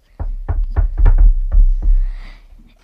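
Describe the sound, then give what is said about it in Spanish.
A series of about seven heavy knocks on a door, loud, in a slightly uneven rhythm over two seconds, with low booming thuds and no voices. “Espera, vamos a llamar a la puerta.”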